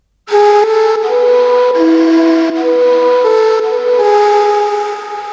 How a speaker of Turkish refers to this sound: Nehirde yıkanıyordum ve güzel bir ezgi duydum. Bir kayanın arkasında bir adam saklanmış, gözlerini kapanmış, neyini üflüyordu.